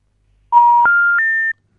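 Three quick telephone keypad tones play back to back as a phone call is dialed, each stepping a little higher in pitch, loud and clear with no voices around them.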